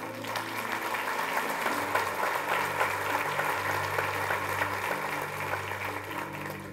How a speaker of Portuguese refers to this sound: Você pode dar um aplauso a ele?